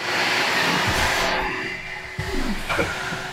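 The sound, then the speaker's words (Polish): A vacuum cleaner runs with a loud, steady roar and a constant humming tone; partway through, its hiss dulls and the drone shifts, with a few thumps and bumps near the end. “Nie, mam odkurzacz.”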